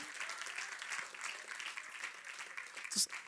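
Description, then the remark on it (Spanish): A crowd applauds the Lord in praise, steady, dense, continuous clapping throughout, a bright sharp burst standing out near the end. “Déselo bien fuerte al Señor.”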